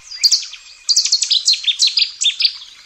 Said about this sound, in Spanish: un ruiseñor cercano o un cuco a lo lejos.